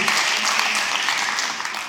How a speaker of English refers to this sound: I was blessed when I woke up, walked outside, and did not start sweating because it was 70 degrees this morning. Yeah, y'all can clap, that's fine.